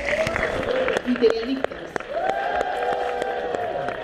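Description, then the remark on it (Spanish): A crowd at an awards ceremony claps and cheers steadily for the WhatsApp promo, with sharp scattered claps over a dense roar of voices and whoops, loud throughout the short burst. “Escucharon en WhatsApp el escandalazo y los aplausos, ¿no?”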